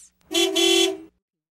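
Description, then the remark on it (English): A single loud vehicle horn blast, a steady, bright honk lasting nearly a second with a brief dip in the middle, like a bus horn sounding. “A bus.”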